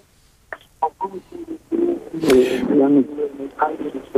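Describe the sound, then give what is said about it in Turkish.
A caller's voice comes over a narrow, tinny telephone line, smeared by echo from a radio playing back the broadcast, so syllables repeat and blur into a hollow, doubled wash of speech. “Ses, ses yankı yapıyor için biz de sizi duyamıyoruz ne yazık ki.”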